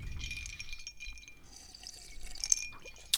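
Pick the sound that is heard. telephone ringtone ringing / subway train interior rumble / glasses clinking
glasses clinking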